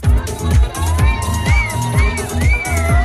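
Loud electronic dance music from a free electro DJ set at the Panty Party, an underwear collection event at La Recyclerie in Paris: a thumping four-on-the-floor kick drum drives a steady beat while bright synth lines swoop and slide above it, with no voices.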